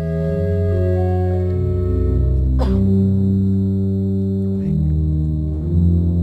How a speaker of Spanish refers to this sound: Bueno, así suena este órgano. Vamos al segundo órgano.